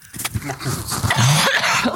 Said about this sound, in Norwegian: Å, herlighet, stakkars lyttere som har hørt på hosting.